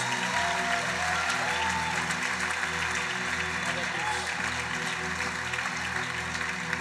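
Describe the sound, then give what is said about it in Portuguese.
A church audience applauds the Lord for the lives of their pastors, a dense wash of clapping hands that stays fairly loud for several seconds, with a low hum of voices and background music underneath. “Vamos dar um aplauso ao Senhor pela vida deles.”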